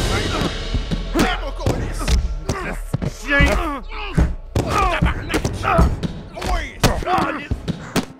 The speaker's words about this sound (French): Ils les battent à grands coups de pied, coups de poing, les frappent avec des chaînes, une batte de baseball. Le sang se met à gicler et à granger à chacun des coups portés sur les hommes presque nus.